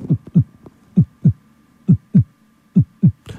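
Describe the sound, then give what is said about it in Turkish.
A recorded steady heartbeat with paired low thumps, lub-dub, repeating at a calm, normal resting pace of about 63–67 beats per minute, clear with a faint hum underneath and no talking. “Yani şu atış sesi var ya”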